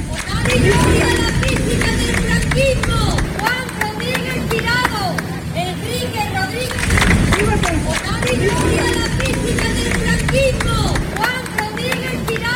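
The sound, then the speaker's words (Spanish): Relatives of General Gonzalo Queipo de Llano clap and cheer as a hearse carrying his remains leaves the basilica after his exhumation, with dense scattered handclaps and raised voices shouting over a steady hubbub throughout. “Ha salido hace apenas unos minutos un coche fúnebre con los restos mortales de Gonzalo Queipo de Llano, el general eh, Los familiares de Queipo aplauden y Vitor”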